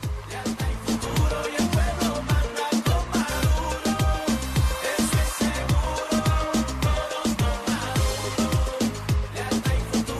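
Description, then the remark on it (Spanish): An upbeat Caribbean-style dance song from the campaign of Venezuelan president Nicolás Maduro plays loudly and steadily, driven by a pounding, regular bass beat under a dense, bright instrumental mix. “hay muchísimas canciones que podemos encontrar con este ritmo caribeño y centroamericano”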